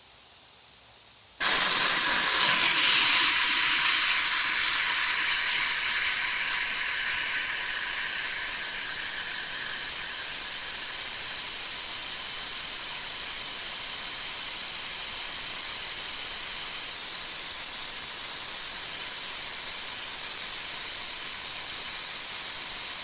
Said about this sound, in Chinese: 好，这个就是 pink noise，其实听起来好像是差不多，跟跟白噪音都差不多，都是一类噪音嘛，而且都感觉是现在是重复不断啊。